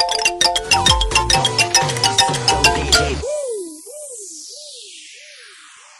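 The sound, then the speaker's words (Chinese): A short burst of upbeat background music with a steady pulsing beat cuts off after about three seconds, leaving a wavering, warbling synth tone that slowly fades out. No one speaks. “卡着点儿给我放音乐呀，是吧？”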